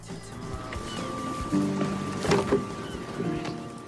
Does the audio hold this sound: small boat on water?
yes